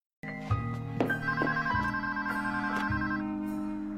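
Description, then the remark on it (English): A telephone rings steadily for several seconds, its bright electronic tones layered and shifting slightly in pitch, fairly loud with no voices: Kenneth calling Tracy at home in the show 30 Rock. “And then he gets a phone call from Kenneth where he has to prove himself as a good husband.”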